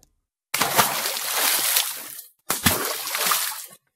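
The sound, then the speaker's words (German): A toilet flushing: two loud bursts of rushing, swirling water, each starting abruptly and lasting a second or two, separated by a brief gap before cutting off. “dann ist das jetzt hier mal die Folge über Toiletten und Toilettenspülungen”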